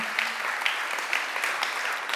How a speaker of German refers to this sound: Gebt denen mal einen Applaus.